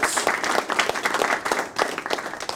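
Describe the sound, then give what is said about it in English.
Hand clapping: a dense, steady patter of many sharp claps running for a couple of seconds, like a small group applauding, fairly loud with no talking. “I'll give you the clap.”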